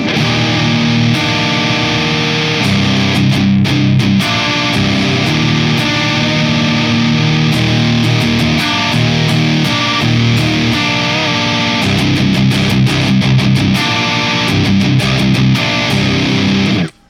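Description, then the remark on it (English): A heavily distorted electric guitar, played through a Super Axolotl distortion pedal, plays a thick, saturated riff for about seventeen seconds, loud, with sustained chords and choppy bursts before cutting off abruptly. No one speaks. “Oh yeah, by the way, that's just the super axolotl.”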